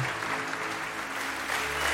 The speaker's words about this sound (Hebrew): מן הרגע שחיוכו המוכר והאהוב הופיע בתא הכבוד של התיאטרון, מחאו לכבודו כפיים, הקהל, התזמורת וכל השחקנים.